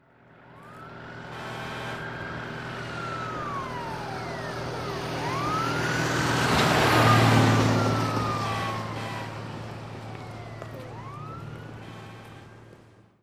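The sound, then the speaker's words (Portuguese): A fire truck's siren wails in long rising and falling sweeps over a deep engine rumble as the truck sets out after a fire alarm, swelling loudest midway as the vehicle passes, then easing off as it pulls away. “E soou o alarme de incêndio. Quando o caminhão já estava de saída,”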